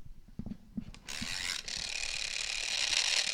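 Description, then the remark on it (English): A few quick clicks of winding, then a steady mechanical whirring and buzzing as the wind-up timer of a toy basketball game runs down, physically moving the basketball hoop from back to front, fairly loud, with no one talking. “But when you wind it up and let it go, this timer actually physically moves the basketball hoop from back to front, back to front as you try to get it in the hoop.”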